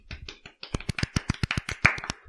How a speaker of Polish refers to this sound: Brawa.